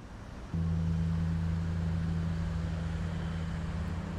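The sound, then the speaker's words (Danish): The engine of a ferry on its way to Malmö kicks in after a moment of hissing ambience, settling into a loud, steady low-pitched drone with a constant hum that continues without any voices; it is raining lightly in the late afternoon. “Og afsnittet starter på en færge på vej til Malmø.”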